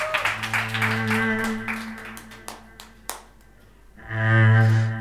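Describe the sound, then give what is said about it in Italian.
Scattered audience clapping rings out over sustained musical chords, the claps sharp and irregular, thinning out before a loud swelling note returns near the end. “…, facciamone ancora un applauso.”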